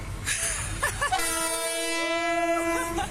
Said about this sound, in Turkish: Hemzemin geçitte öz çekim yapan kadınlardan birinin koluna işte böyle tren çarptı.